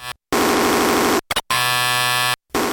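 Harsh electronic noise music, a 2001 piece by a Japanese composer: dense, buzzing tonal blocks that cut abruptly on and off, separated by short dead silences, with a stuttering burst in the middle and a low droning hum underneath.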